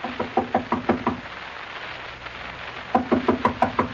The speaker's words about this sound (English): we've knocked on the door enough times to be the police.